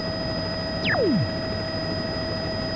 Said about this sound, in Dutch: Ik hang in een helikopter boven de kustlijn van Gambia.